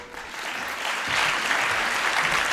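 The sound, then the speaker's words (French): An audience breaks into applause, a dense wash of many hands clapping that swells after the first second and stays steady and loud to the end, with no one speaking. “Merci beaucoup de l'applaudir.”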